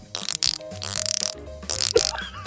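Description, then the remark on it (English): A person imitates a dolphin with a lively string of rapid clicking chatters and squeaky whistles, several bursts over a couple of seconds, with no talking. “Would you like to hear that said impression of dolphin?”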